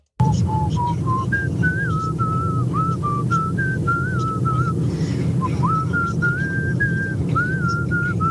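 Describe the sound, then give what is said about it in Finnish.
A person whistles a song melody sent in as an example for a song-guessing game, a clear, steady tune of sustained and gliding notes rising and falling in pitch, heard over a constant low background rumble with no talking. “Meillä on tullut aika paljon näitä vihellysesimerkkejä.”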